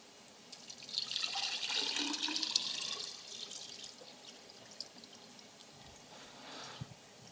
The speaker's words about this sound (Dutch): Nu heb ik ook dat poestukje met die polymeren en kan ik daar ook water op gaan gieten.